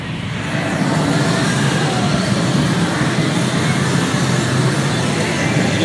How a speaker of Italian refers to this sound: visto che siamo a Chiabara, non può mancare un giretto veloce in una sala di pacinco. Vorrei ricordarvi il rumore che c'è.